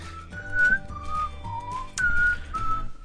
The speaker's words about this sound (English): I don't like whistling. I don't know why. This whole song is whistling.